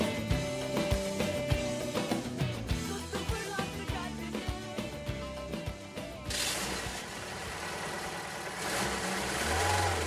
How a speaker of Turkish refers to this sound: Evet arabayı çalıştırdık.